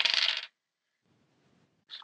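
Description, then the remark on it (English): Dice rolled for a sanity roll clatter across a hard tabletop in a quick, bright rattle lasting about half a second, followed by quiet low shuffling and a second short clack at the end. “Could I have a sanity roll, please?”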